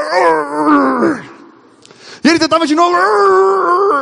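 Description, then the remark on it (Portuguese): A voice does a muffled imitation of the lion's roar from the story of Daniel, a strained groan that sinks in pitch and fades. After a brief lull, someone talks with a lively, animated voice. “E quando o leão ia fazer, o anjo vinha e pegava a boca dele”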